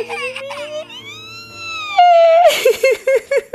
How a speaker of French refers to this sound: Vous croyez que je ris, mais je pleure. mais je pleure de joie, je pleure d'amour. Je pleure aussi un petit peu de surmenage, c'est vrai.